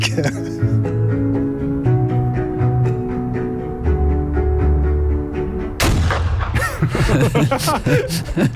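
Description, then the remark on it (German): Black powder rifle shots crack repeatedly at an outdoor range, echoing over a steady low drone, followed by a louder, busier stretch of mixed noise with voices in the background. “Wir hören mal, wie das so klopft. Wenn ich an Schwarzpulver verbrenne, dann ist die Welt alles in der Ordnung.”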